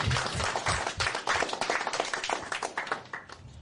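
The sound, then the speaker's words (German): An audience claps steadily for a few seconds, a dense, crackling wash of many hands with no break and no one speaking over it. “Ja, dürft ruhig mal klatschen.”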